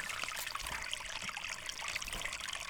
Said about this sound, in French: De temps en temps, elle ouvrait son grimoire pour entendre un peu de vie. Un oiseau qui chante, le bruit de ses pas, une abeille, une rivière.